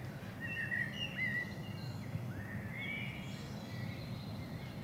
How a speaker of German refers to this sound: Man hört sogar die Vögel zwitschern. Ja. Nicht der Auspuff eines Motorrads, sondern tatsächlich Vögel geben den Ton an, in Würgau in der fränkischen Schweiz, unterhalb des Würgauer Bergs.